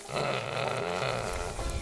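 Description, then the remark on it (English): A pig at Animal Place grunts and snuffles, a steady run of low, rumbling grunts lasting a couple of seconds with no one speaking. “There's not a pig alive that doesn't love a belly rub.”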